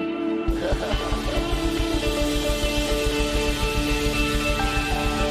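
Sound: audience applause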